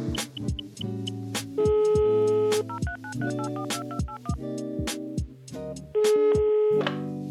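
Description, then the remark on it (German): An electronic phone ringing tone plays alone while an outgoing call is placed to a guest: a bright synthetic melody of steady beeping notes stepping up and down in pitch over a rhythmic pulsing backing, clear and fairly loud throughout. “Alles klar, dann rufen wir sie mal an.”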